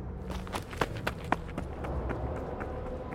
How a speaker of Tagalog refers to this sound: Habang tumatakbo, ramdam na ramdam daw nilang nasa likod lang nila ang mga batang multo Dinig na dinig nila ang mga yabag ng maliliit na mga paang sumasabay sa kanilang pagtakbo.